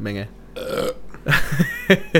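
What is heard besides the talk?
burp into the microphone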